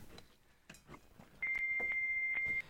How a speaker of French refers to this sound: Ça, en fait, c'est euh, vraiment le modem en Pennsylvanie qui se met à enlever l'écho, le, son suppresseur d'écho. Je ne sais pas pourquoi il fait ça. Et puis, il va enlever, il va canceller le PSTN.